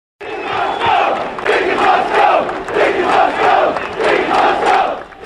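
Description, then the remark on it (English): A large crowd of New York City police officers protests at City Hall, with Giuliani as a ringleader, pressuring Mayor David Dinkins over a civilian complaint review board. They shout and chant in loud, rhythmic waves, voices rising together roughly once a second, with continuous dense noise and no single clear speaker. “These cops were here to put pressure on Mayor David Dinkins, hoping he would reconsider his request for an all-civilian complaint review board.”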